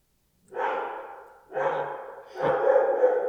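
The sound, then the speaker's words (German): A dog barks three times in a slow, steady rhythm, each bark drawn out and fairly loud, with no talking. “Schaut hört man den Hund bellen.”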